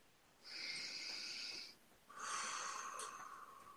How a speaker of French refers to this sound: Alors on va faire une respiration.